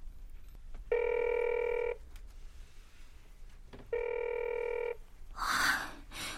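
A mobile phone ringback tone sounds twice as a call is placed, each steady harmonic burst lasting about a second with a pause between, followed by a short rustling noise at the end.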